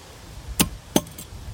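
A bottle is popped open: two short, sharp pops about a third of a second apart, the second one crisper, over quiet background noise with no talking.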